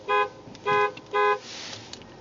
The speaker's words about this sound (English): Okay, we've beeped three times,